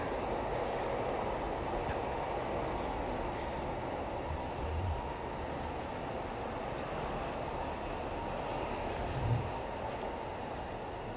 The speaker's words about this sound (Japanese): あ電車が通っちゃった